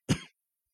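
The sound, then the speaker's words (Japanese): A single short, forceful cough, a quick throaty burst lasting about a quarter second, followed by silence. “あ、咳込んだっていう、ね、感じですけども。”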